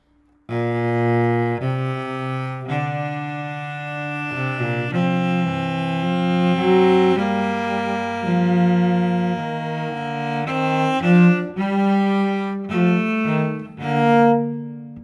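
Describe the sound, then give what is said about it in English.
A musical canon in augmentation, one voice answering in contrary motion with slower, descending notes: steady, sustained tones layered in close counterpoint, played alone at a moderate level without talking. “And here we've got it not only twice as long, so you're counting it bum, bum, bum, but he's got it in contrary motion, so it's not going up, it's descending.”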